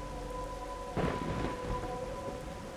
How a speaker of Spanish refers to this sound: Es la tormenta, hijo. Hay algo en esa tormenta que los hace creer que pueden venir a jugarnos bromas.